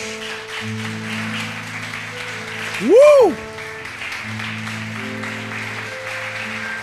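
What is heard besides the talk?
audience applauding loudly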